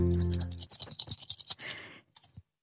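Rustling and scratchy clinking as coins and paper banknotes, withdrawn from an ATM, are handled in a radio studio, a busy burst of crinkles and small taps lasting about two seconds, with a faint low hum at the start.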